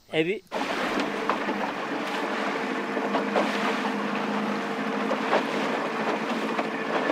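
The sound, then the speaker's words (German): A small fishing boat with a small triangular sail heads out to sea to fish, a steady rumbling wash of engine and sea noise filling the scene after a brief voice at the very start. “Nun setzt er ein kleines dreieckiges Segel, um hinaus aufs Meer zum Fischen zu fahren.”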